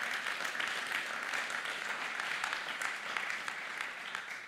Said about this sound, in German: Hey, mal Applaus an die ganzen Techniker.